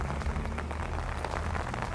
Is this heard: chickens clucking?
no